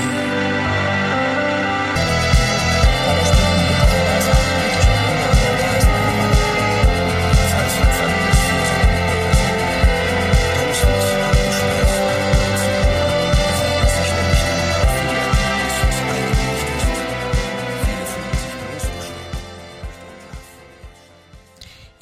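An Italian pop song plays loudly with a steady, driving beat and full instrumentation, carrying on evenly before gradually fading out near the end.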